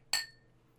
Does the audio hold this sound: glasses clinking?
yes